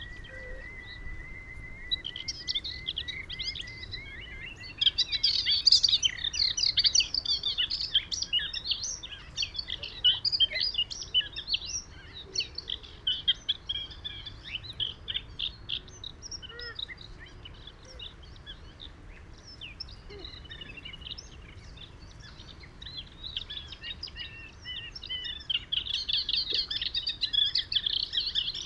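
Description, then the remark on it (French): A moustached warbler, a resident aquatic warbler, sings a continuous, rapid stream of high chirps and trills in a south wind, over a steady hum of marsh ambience; a few other bird calls mingle in. “La vedette du jour, malgré le vent du sud, est sans conteste la lucignole à moustache, une fauvette aquatique sédentaire qui chante dès le mois de février.”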